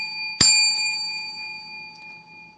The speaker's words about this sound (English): Ringing the bell again.